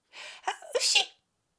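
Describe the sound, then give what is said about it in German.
A single forceful, loud sneeze performed by a voice with a short breathy wind-up before the sharp burst, then silence. “setzte sich Agi wieder auf seinen Schoß, nieste kräftig und kraulte ihm den Bart”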